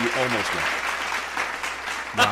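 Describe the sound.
Steady audience applause, a dense crackle of many hands clapping at an even loudness, with brief voiced sounds layered over it near the start and again at the end.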